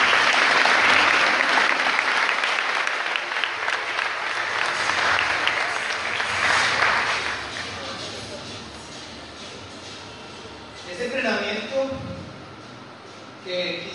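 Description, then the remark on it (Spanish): Loud, dense audience applause for a trainer after a training session fills the opening seconds, a broad wash of rapid clapping that gradually thins and fades, after which a voice begins speaking over the dying claps. “Quiero que le den un muy fuerte aplauso a nuestro oro”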